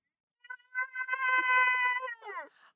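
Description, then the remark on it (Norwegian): A person who is asked whether they are the cow in Maskorama imitates a cow's moo. It is one long, drawn-out, fairly high-pitched and loud call, ending in a quick wavering drop in pitch. “Det, får jeg, det, høre et Skal jeg møe ordentlig?”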